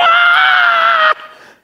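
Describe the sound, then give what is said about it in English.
A loud, sustained shriek made by a human voice imitating the unhappy cry of a man with an unclean spirit in a synagogue, holding steady for about a second before cutting off and trailing away. “kind of a shriek, an unhappy shriek, because a man with an unclean spirit was in the synagogue.”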